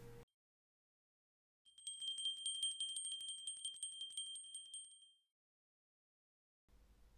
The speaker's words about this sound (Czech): Jedli, pili, rozprávěli, dobrou vůli spolu měli – a když zazvonil zvonec, byl i hodům konec.